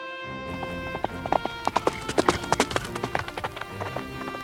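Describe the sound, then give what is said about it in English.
A horse carrying a doctor gallops in quick, uneven clusters of sharp, loud clops, over a steady tonal hum in the background with no one speaking. “Uh, can I use your horse? Beauty is very tired, but he will carry you, sir.”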